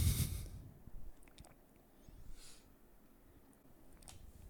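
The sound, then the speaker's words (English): Someone drinks water: a quick sip, then a few soft swallows and small wet mouth clicks spread over a few seconds of near-silence, with no talking. “I'm going to take a water break.”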